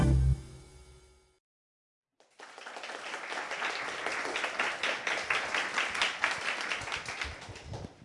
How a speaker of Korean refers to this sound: 예, 고맙습니다. 박수를 두 번씩이나 해주시고요.